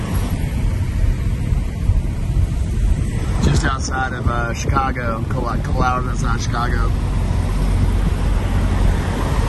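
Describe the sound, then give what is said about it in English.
Steady low engine rumble of many big trucks idling at a large truck stop on a Sunday night around 8:10 p.m., with traffic moving, a constant droning bed of noise with a man speaking briefly over it partway through. “The sign says it's the largest truck stop in the world, whatever that means, but uh, looks like it goes like four or five rows back.”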